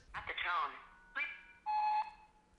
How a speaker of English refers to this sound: Um, so there's, it turns out there's a keyboard shortcut that lets you jump directly to the beep like this